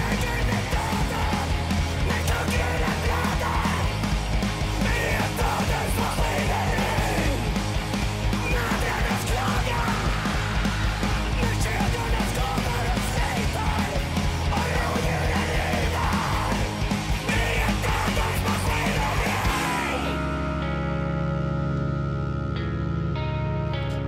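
A high-pitched vocal scream rises over loud, dense, distorted music that plays continuously for about twenty seconds, then gives way to sustained ringing tones.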